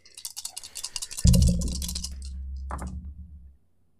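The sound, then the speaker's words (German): Dice being rerolled for a role-playing character's ability score rattle in a quick burst of clicks, then tumble onto a hard surface with a rumbling roll and a final click before settling into silence, landing on 14. “Dann würfel ich.”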